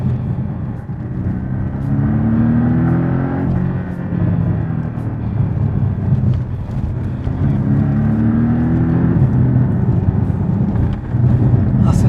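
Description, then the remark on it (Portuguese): A sports car with a PDK gearbox and a variable-geometry turbocharger drones loudly, rising in pitch through two strong acceleration pulls with climbing revs, over steady road and wind rumble. “aceleração dele é muito boa. Resposta de PDK é. não tem nem o que falar.”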